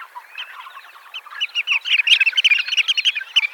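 Marsh sandpiper calls: a busy stream of sharp, high-pitched piping notes, starting softly and growing louder and more rapid, with no voices present.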